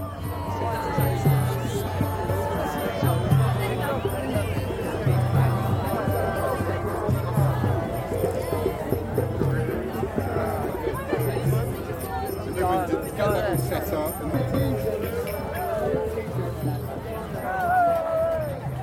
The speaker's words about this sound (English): the faintly pagan sound of Summer Solstice 2008 down there at Stonehenge. In case you were thinking, no, those bells weren't bicycle bells, they were Hare Krishna bells.